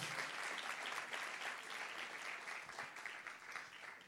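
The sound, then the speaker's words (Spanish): An audience at a bilingual Spanish-English sermon applauding the love of God steadily, a dense, even wash of many hands clapping that holds at a constant level throughout, with no voices standing out above it. “Vamos, a darle un aplauso al amor de Dios derramado en la cruz del Calvario por ti, por mí.”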